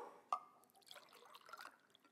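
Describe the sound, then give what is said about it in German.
Water from a prepared spring drips and trickles into a small container, opening with one sharp, bright drop followed by a run of quieter splashes and ringing plinks, fairly soft, with no talking. “Ich habe eine Quelle vorbereitet. Mit Wasser.”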